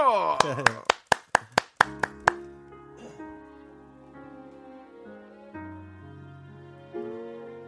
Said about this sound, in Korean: 자, 박수 주시기 바랍니다. 박수!